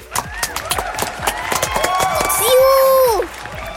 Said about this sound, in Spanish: Porque estaba armado. un aplauso, un aplauso. estuvo bueno, estuvo bueno.